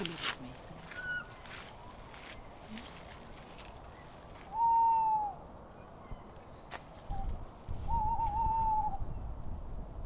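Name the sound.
owl hooting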